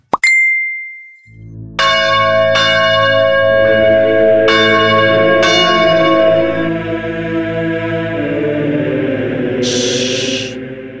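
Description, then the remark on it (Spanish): Abbey church bells ring out in a slow series of loud, resonant strikes that overlap and hum long after each hit, preceded by a small bright ding, with no voices. “nos vinimos a la abadía de la ilustración, donde monjes ilustradores han hecho voto de silencio al Ilustrador Supremo.”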